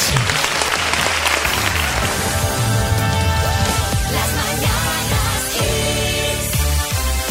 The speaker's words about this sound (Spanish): Un aplauso para ellos.